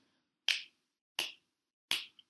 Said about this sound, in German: Und wir haben jetzt nirgendwo den Ton rauf oder runter gestellt. Ich kann einfach nicht gescheit schnipsen.